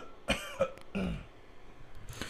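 A few close, dry coughs: two short sharp bursts in quick succession followed by a longer, throatier cough, then quiet room tone with no talking.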